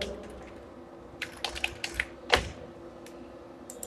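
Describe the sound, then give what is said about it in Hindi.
Computer keyboard typing while entering a phone number in an online sign-up form: a short burst of quick, light key clicks in an irregular rhythm, with one sharper, louder keystroke near the end, then quiet. No one speaks. “आप अपना phone number डालो”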